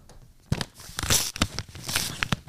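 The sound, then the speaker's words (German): Crisp paper tearing and crinkling in a quick series of rips and rustles, as an envelope is torn open by hand, with no voices over it. “Jetzt will ich ihn unbedingt aufmachen und wissen, was da drin ist.”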